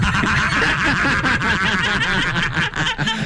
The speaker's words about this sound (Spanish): Haz ah, el sonido de un perro. Ah, el sonido de un perro y un caballo.